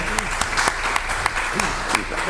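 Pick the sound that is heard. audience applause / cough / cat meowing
audience applause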